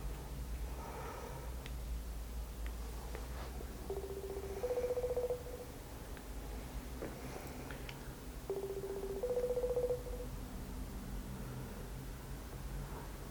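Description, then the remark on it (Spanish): Two ringback tones from an outgoing phone call sound over a steady low hiss, each a short steady electronic buzz a few seconds apart, with no one speaking. “Vamos a poner llamada.”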